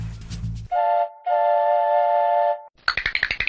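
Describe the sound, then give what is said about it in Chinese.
A toy train whistle gives two steady, mid-pitched toots, a short one then a long one, as the little train sets off again, between a low rumble and a quick, rhythmic chugging that follows. “小火车又上路了。”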